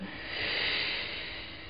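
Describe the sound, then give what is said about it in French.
A long, forceful breath drawn in, an airy rushing hiss that swells to a peak and then eases slightly, with no talking. It is a maximal deep inhalation during a spirometry lung-volume test, with the patient breathing through a mouthpiece and wearing a nose clip. “On fait les volumes, donc une grande, grande inspiration et on vide à fond.”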